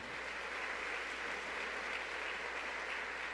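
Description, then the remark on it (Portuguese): A church audience applauding the Lord together, a steady dense wash of many hands clapping at once with no break or rhythm, holding an even loudness throughout with no voices over it. “Pode aplaudir o Senhor e ligar na terra.”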